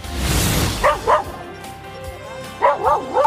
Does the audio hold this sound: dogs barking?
yes